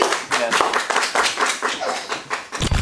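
A small group applauds with quick, dense hand claps, loud, sustained for a few seconds without any talking, ending in a brief low thump.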